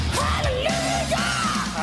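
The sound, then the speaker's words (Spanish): A loud, raspy voice yells a sustained, wavering line over a dense, distorted hard rock band that plays steadily throughout at full volume, with no pauses. “como, como gritaba esta, esta gente, estos monstruos.”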